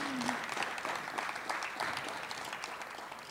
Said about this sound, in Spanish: Dale un aplauso al Señor, porque se lo merece.